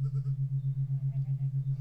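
A single long goat bleat, loud, with a steady, rapid quaver running through it for nearly two seconds. No other sounds or voices accompany it.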